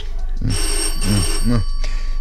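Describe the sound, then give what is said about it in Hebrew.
A telephone bell rings continuously and fairly loudly through the whole moment, a steady metallic trill, with a few low, muffled vocal sounds beneath it. “למה אתה לא מרים את השפופרת?”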